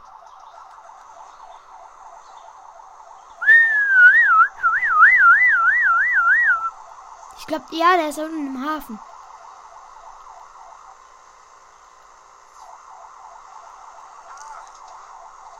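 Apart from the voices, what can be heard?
ambulance siren wailing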